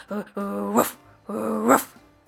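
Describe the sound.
A human voice imitates a dog startled awake at sunrise after the rooster crows: two loud growling rumbles, each rising into a sharp bark-like yelp.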